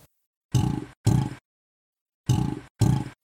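Four loud, deep, rumbling bellows in two pairs, each roughly half a second long with a gritty, resonant tone, the second pair following after a pause. An alligator bellowing while breathing heliox, with no talking.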